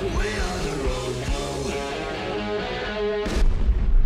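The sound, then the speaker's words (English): A droning, whining mechanical hum builds until a single sharp cannon blast from a tank erupts near the end, leaving a deep low rumble behind it; a sound effect called the Chicago Tank, played on air. “Here's uh, Tank, the Chicago Tank.”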